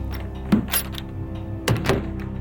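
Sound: door being closed shut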